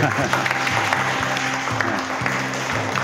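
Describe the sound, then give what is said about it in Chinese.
An audience applauds steadily to welcome a teacher, a dense wash of many hands clapping at a fairly loud, even level throughout, with low voices or a hum faintly beneath the clapping. “那我们就先那个掌声”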